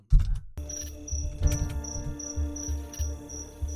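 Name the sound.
cricket chirping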